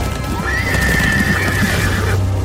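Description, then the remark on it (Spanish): A horse lets out a loud, drawn-out whinny lasting about two seconds as it stops abruptly while running fast, with a steady low rumble of hooves and movement underneath, with no talking. “Ray se frenó en seco. Si bien el príncipe no alcanzó a caerse, sí se llevó un fuerte golpe al estrellarse contra el cuello del animal.”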